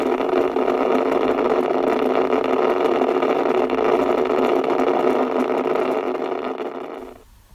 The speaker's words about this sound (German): Rosa Rauschen, Diode, UdSSR ca. 1950.